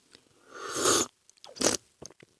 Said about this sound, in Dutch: Dus het is niet heel veel slurp, maar wel iets meer dan we gewend zijn.